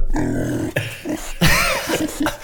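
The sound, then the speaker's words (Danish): Pig grunting right up close: a run of loud, rough, snorting grunts in quick uneven bursts, with a brief pause midway before a harsher, squealing grunt. “Så lige pludselig kommer din lille gris ind i soveværelset. Så skal du, det første, du kan høre i øret, det er det her.”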